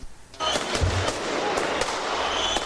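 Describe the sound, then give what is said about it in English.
Outdoor fireworks and thrown bottle rockets crackle and bang repeatedly at a protest against a steady wash of crowd noise, with sharp pops at irregular intervals and faint whistling streaks. “This, by the way, is com- it's just fireworks.”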